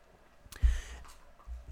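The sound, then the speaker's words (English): A single quick, airy slurp as a person takes a little sip of their drink, followed by a soft low thump, with no one talking. “So I'm going to take a little sip of my drink right here.”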